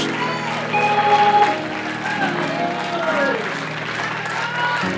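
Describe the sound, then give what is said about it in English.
A church audience claps during a sermon in a dense, steady burst of applause lasting the whole stretch, loud and even, with murmuring voices and some tonal sounds mixed into the clapping. “Oh no, you don't want to clap now because you ain't invited anybody to church for the last 15 years.”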